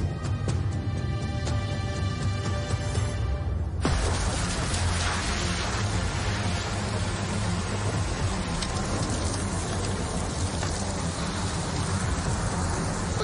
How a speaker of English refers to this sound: No, not with the rain this heavy.